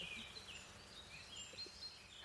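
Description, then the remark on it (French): Faint, high bird chirps scattered over a soft outdoor background, several short calls overlapping, with no voices: birds at about 8:30 in the morning on the Garonne canal. “Encore plus en vacances et encore plus plus plus sur le canal de la Garonne avec les oiseaux qui nous disent bonjour.”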